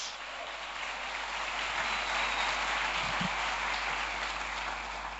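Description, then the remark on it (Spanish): A church audience applauds steadily, a dense wash of many hands clapping at once, sustained and even in loudness throughout with no voices standing out. “¿Dónde está el aplauso de la iglesia que dice, yo voy a ver la gloria de Dios?”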